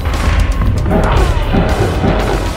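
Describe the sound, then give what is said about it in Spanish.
A loud, dense burst of video game combat audio, with heavy uppercut-style punch impacts that send a character flying skyward and make it scream, and crashing hits blending into a continuous roar of effects for a few seconds. “Lo que hago básicamente para que el, personaje grite así es este es como una especie de puñetazo que lo envía hacia los cielos básicamente.”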